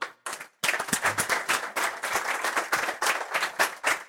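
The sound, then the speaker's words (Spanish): An audience bursts into sustained applause for the guests present, including Dr. Jorge Yunda, many hands clapping densely and steadily for several seconds after a brief pause, with no voices heard. “Y con eso quiero eh, anunciar la presencia y pedir un aplauso para quienes están aquí, al doctor Jorge Yunda.”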